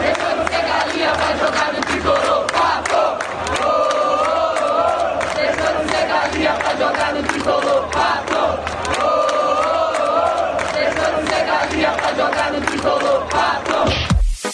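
A large stadium crowd of São Paulo football fans sings a personalized song honoring the player Pato, a rhythmic chant in unison, loud and sustained throughout, with repeated melodic phrases echoing across the stands.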